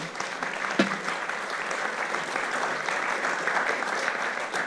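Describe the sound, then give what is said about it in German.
Sustained applause from an audience, a dense steady patter of many hands clapping at an even loudness for several seconds, with no speech over it. “Das ist ja fast ein Applaus wert, würde ich auch sagen.”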